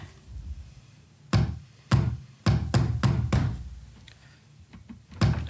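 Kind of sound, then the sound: impact, pounding on a door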